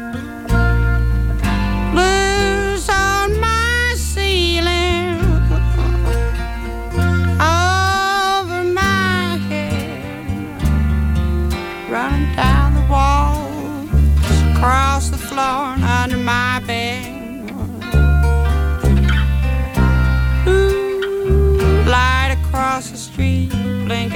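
A 1960s folk blues song by a female singer plays: a sliding, expressive singing voice over steady instrumental accompaniment with warm sustained low notes, continuous and fairly loud throughout.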